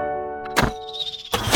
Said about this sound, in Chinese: 哦，乖乖，这是弓箭的声音。